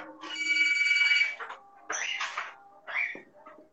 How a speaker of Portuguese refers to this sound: Toca até o telefone para atrapalhar.